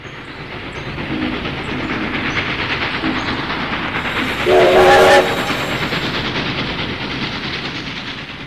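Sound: train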